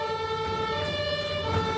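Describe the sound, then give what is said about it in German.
An emergency vehicle siren blares steadily, a sustained tonal wail over low engine rumble, with no talking, as the vehicle with blue lights crosses an intersection through a red light on its way toward Giesing. “Und es geht ganz schnell und zügig über die Kreuzung mit Blaulicht.”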